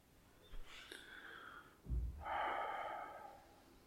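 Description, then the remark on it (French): Two slow, deep breaths, a long airy inhale followed by a fuller, rushing exhale, with no one speaking. “Merci pour cette respiration et ce souffle.”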